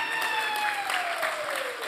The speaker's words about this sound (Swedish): Kan inte ni som var med i Israel bara resa er upp? Ja, ja, så kan applådera dem lite så.